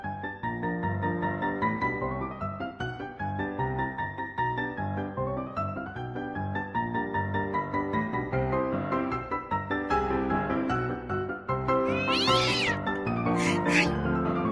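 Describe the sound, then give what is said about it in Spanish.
A cat meows loudly, long drawn-out cries sliding up and down in pitch, continuing almost without pause, with a few brief hissy bursts near the end, as someone chases it. “Ando correteando su gato, por eso no estoy a tiempo”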